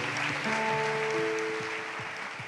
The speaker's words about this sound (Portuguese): Vamos aplaudir gostosamente ao Senhor.